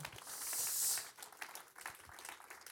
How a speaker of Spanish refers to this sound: Dele un aplauso al Señor.